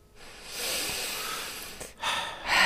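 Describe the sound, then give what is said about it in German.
A long, deep breath drawn in slowly, followed by a brief pause and a sharper, breathy exhale, with no talking. “also, wichtig wäre jetzt aus meiner Sicht und meiner Meinung nach, dass du dir da bitte kurz dieses Stopp atmen”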